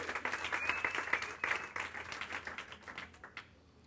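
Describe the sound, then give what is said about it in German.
A burst of applause from a small group at a church service, welcoming a newly arrived guest. Dense, rapid clapping at moderate volume thins out and fades over about four seconds, with a faint whistle-like tone near the start. “Auch nochmal ein Applaus.”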